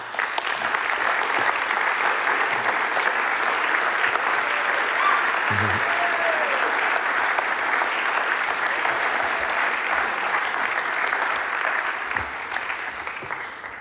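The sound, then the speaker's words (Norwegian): An audience applauds steadily for about fourteen seconds, a dense, even wash of many hands clapping at constant loudness, welcoming a teacher and two of her students, and tapers slightly at the very end. “Nå må dere ta de godt imot med en applaus.”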